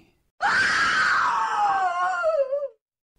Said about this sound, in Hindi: नीति वहां बैठी बहुत जोर से चिल्लाई